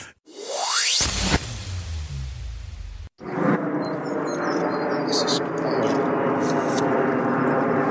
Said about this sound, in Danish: det var lyden af fly i luften og pressefotografer